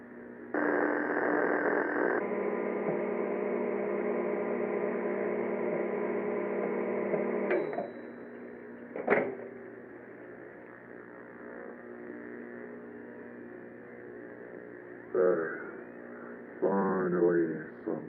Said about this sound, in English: Just think I've got some pizza rolls in my fridge. Only 20 minutes to prepare, and I can eat. Let's wind up the microwave then.